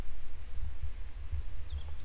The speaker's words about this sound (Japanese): この2羽の鳥とは別で、別の鳥が奥の方で楽しそうに鳴いてるのがまたちょっと切ないですけど。